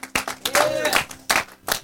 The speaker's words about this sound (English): Give the Lord a hand clap of praise. Come on.